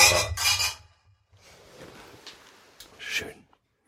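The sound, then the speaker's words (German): Two beer glasses are knocked together in a toast, giving a couple of heavy clinks that sound almost like stacked dishes, followed by quieter handling noise and another soft clatter. “Das klingt, als würde man Teller aufeinander stellen.”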